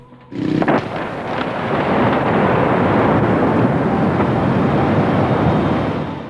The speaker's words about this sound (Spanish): Un ruido muy fuerte invadió la ciudad. Una explosión retumbó en todo Río Tercero.